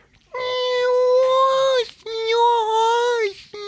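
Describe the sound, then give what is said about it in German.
A human voice imitates whale song with two long, sustained, wailing tones. Each is steady and mid-pitched, then bends downward at the end, and a short pause separates them. “Entschuldigung, kann man auch ich unterbrechen, während ich Walisch Wahlgesang. spreche.”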